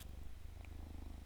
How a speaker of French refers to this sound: Un écho ah. Non, c'est pas un c'est mon chat qui vient sur moi,